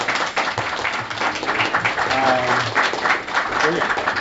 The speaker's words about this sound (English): I just want to say thanks if you want to give a round of applause for it.